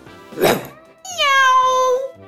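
A short breathy whoosh, then one long, drawn-out kitten meow that slides downward in pitch. It is fairly loud, with no talking.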